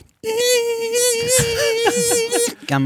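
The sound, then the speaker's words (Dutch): A mosquito's thin, high wingbeat whine holds steady for about two seconds, with brief voice-like sounds flickering over it before it cuts off. “Muggen vinden de partner op basis van de frequentie van de vleugels.”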